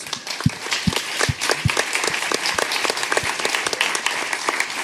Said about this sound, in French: Maintenant, on peut applaudir Fibre Tigre.